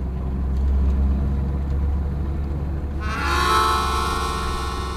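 A bus rumbles past with a deep, steady engine drone, then a louder, brighter whine of the engine rises partway through as it moves on. No one speaks.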